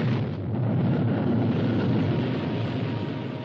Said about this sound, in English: Progress is the sound of a motor, the hum of a turbine the heartbeat of a factory, the sound of a symphony, the roar of a rocket.